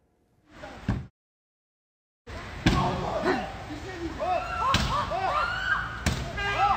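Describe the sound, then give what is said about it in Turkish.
A man standing in front of a car in Seyhan, Adana, Turkey, pounds his fist on its window again and again while a woman is locked inside, several heavy, uneven thuds, each blow a sharp dull slam, while agitated voices talk and shout underneath throughout. “Otomobilin önüne geçti defalarca camı yumrukladı.”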